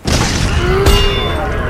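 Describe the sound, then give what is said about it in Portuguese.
A loud explosion from the belly of the Hydra: a deep booming rumble that fills the whole stretch, with a sharper blast cracking through partway and the roar continuing steadily after. “E de repente, da barriga da Hidra, uma explosão ressoou e.”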